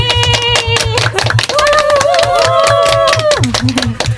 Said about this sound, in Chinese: 那我们先用掌声欢迎他们出场吧。